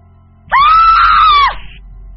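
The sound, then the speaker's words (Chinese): A woman seated in the fourth-to-last row of a bus lets out one loud, sustained, hysterical scream, high-pitched and shrill, rising sharply then holding steady for about a second before breaking off, with no talking around it. “坐在倒数第四排的一个女人歇斯底里的尖叫起来”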